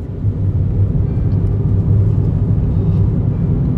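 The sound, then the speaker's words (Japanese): A steady low-pitched rumble of a car interior while driving, constant and even throughout with no voices, just the continuous road and engine drone. “まあ、車の中って本当行ってしまえばすることないというか本当に”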